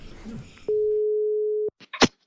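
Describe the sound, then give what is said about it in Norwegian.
A single steady telephone ringback tone sounds clearly for about a second as a call is placed to a journalist, preceded by soft background noise and followed by a few short clicks and handling sounds. “Men jeg tenker at vi skal ringe til han andre journalisten også,”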